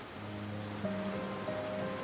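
A soft, steady wash of ocean waves rolling in, a continuous hiss of surf with faint low tones humming underneath and no voices.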